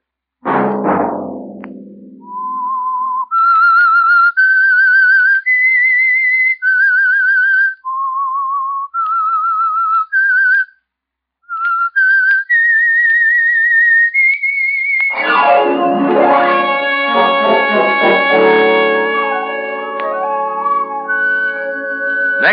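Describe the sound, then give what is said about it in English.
A lone, clear whistled melody of sustained notes stepping up and down in a slow, eerie tune, the theme of the radio show The Whistler, followed by a loud swell of full orchestral music. “Monday at 9 o'clock, The Whistler will bring you another strange tale.”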